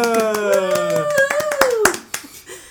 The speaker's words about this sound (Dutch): Mag ik een klein applaus voor onze enige echte dokter